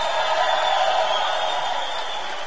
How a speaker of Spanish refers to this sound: Primero un aplauso para todos los próximos diamantes de Guatemala.